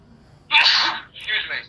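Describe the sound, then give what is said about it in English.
A loud sneeze bursts out suddenly, followed a moment later by a second, slightly softer sneeze, both sharp and breathy with no talking in between. “I've been doing that all day.”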